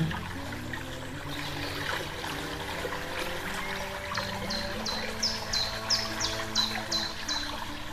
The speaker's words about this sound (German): Wasser plätschern hörst du an diesem Ort schon aus der Ferne.